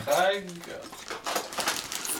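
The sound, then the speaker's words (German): A brief voiced exclamation, then the irregular, bright crackle of a cough drop wrapper being crinkled as a man helps himself to someone else's cough drops, a steady run of small snaps and rustles lasting a couple of seconds. “Jetzt gönnt er sich da meine Hustenbonbons.”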